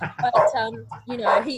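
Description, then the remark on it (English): The speaker's dog barks a few times, its short, sharp barks overlapping with a person talking and laughing. “sorry about my dog”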